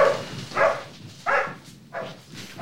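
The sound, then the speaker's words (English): The Queen's misbehaving corgis bark in a series of four or five sharp, mid-pitched yaps at a steady, uneven rhythm, each burst short and fairly loud, with a faint background hiss between them. “And her misbehaving corgis.”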